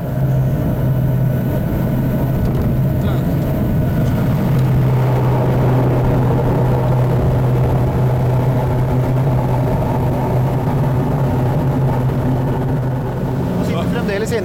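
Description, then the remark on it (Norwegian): A Dornier propeller aircraft coming in to land: a loud, steady engine drone with a low humming pitch that holds unbroken for the whole fourteen seconds, the tone shifting only slightly. “Det, føles veldig meningsløst å lande her.”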